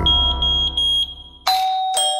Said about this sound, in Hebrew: בשרפה, או שגלאי העשן יאיר אתכם, או שלא תתעוררו בכלל. התקינו גלאי עשן בביתכם, זה פשוט להציל חיים.